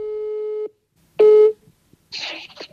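A steady telephone ringing tone on a call to Warsaw, Poland sounds once, then starts again and is cut off by a clatter as the line picks up, followed by a short burst of crackly, hissy noise.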